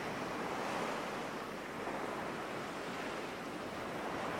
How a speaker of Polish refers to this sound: Słyszysz teraz szum fal.